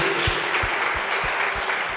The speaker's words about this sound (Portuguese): Vamos dar um lindo aplauso ao Senhor? Vamos aplaudir a Ele?